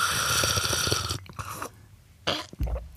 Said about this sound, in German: Komm, wir schlürfen noch ein bisschen ins Mikro, das macht Spaß.